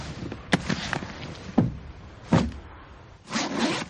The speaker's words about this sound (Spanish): Saca la bolsa y la abre.